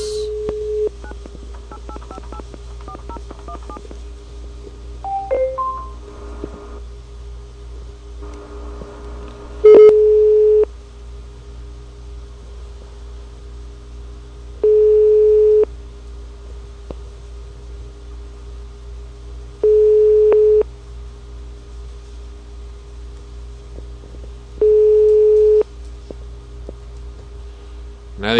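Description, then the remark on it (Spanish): A phone number is dialed with a quick run of keypad tones over a low hum, then a steady ringback tone repeats at regular intervals, each ring a few seconds apart, with no one picking up; the call is to a municipal environment office's cell phone number in La Victoria. “entonces pudieran llamarle directamente a su número celular.”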